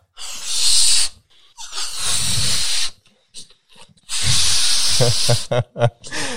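Someone blows up a balloon, their fourth one: three long, forceful puffs of breathy hiss separated by quick gasps for air, with no talking.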